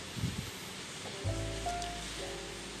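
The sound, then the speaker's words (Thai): Steady rain falls in Thong Lo, hissing continuously, fairly soft and even, with a low rumble and faint tonal hum joining partway through; no one speaks. “ในตอนนี้ก็ฝนฝนฝนก็ตกอยู่นะครับ ยิ่งบ้านผมอยู่ตอนนี้อยู่ทองหล่อนะครับ ฝนตกนี่โอ้โห บรรยากาศเย็นนะครับ”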